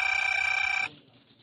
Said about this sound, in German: das Telefon riss ihn aus seinen Erinnerungen. Ja, bellte er in den Apparat.